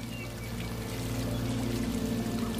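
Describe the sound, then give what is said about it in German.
A small river flows steadily, its water rushing and gurgling in a constant wash of sound with no voices. “Und nicht allzu weit kannst du einen kleinen Fluss sehen.”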